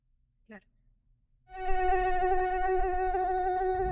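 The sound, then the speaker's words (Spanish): A steady mosquito whine starts abruptly after a brief click and drones continuously, with a stacked harmonic buzz and a low rumble beneath. “que es muy diferente que te digan, bueno, vamos a fumigar, que es lo que se venía haciendo, a decirte, bueno, vamos a liberar muchísimos mosquitos.”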